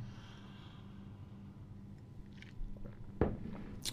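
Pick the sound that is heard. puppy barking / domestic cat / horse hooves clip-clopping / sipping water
sipping water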